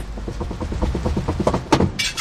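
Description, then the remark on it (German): A locksmith tries and fails to open a door lock, producing a quick, steady run of metallic clicks and scrapes over a low hum, with a sharper rattle near the end. No one speaks. “Der Schlüsseldienst bekommt die Tür nicht auf.”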